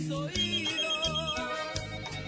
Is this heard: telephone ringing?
yes